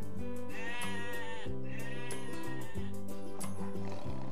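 Two wavering sheep bleats, each about a second long, sound one after the other over steady background music, moderately loud.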